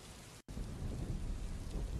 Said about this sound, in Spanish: y empieza a estallar una tormenta. Ves cómo las nubes se forman, se conforman en forma de remolino y empieza a caer un diluvio.